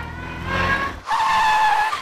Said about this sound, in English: I drove the whole way to practice in reverse.